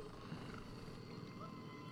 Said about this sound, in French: L'hélicoptère qui vole très bas, hein, j'ai l'impression.